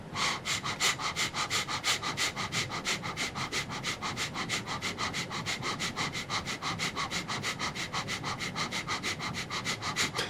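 Rapid, forceful breaths pushed from the belly through the nose in a steady, quick rhythm, about three sharp puffs per second, loud, continuing without pause and with no talking, with hands held together in a pyramid above the head.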